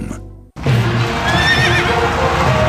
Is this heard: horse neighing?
yes